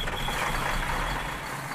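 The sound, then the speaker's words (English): A milk truck engine rumbles steadily on a road trip in Georgia, a continuous low drone with broad road noise and a faint high whine, no voices. “Today, you're headed out for a little bit of a road trip, following the milk truck.”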